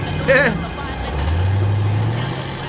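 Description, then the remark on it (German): A VW bus's engine drones low and steady, with a brief squeaky whine near the start, then the motor note rises as the bus pulls away and drives off. “Fast ein wenig wehmütig sah Peter dem davonfahrenden VW-Bus nach.”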